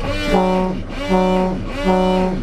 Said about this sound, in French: à partir ça, c'est le, fameux coup de klaxon quand on démarre. Les coups de corne pour ah indiquer qu'on recule avec le bateau si des fois quelqu'un se trouvait derrière.